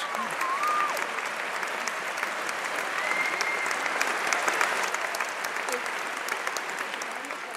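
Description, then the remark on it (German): An audience applauds vigorously after a piece of music, a dense, steady wash of many hands clapping at an even loudness throughout, with a few faint voices and whistles mixed into the crowd. “Also hier bei dieser Musik wird auf jeden Fall heftig geklatscht.”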